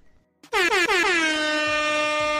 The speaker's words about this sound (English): And them, them air horns is for you and for me, man.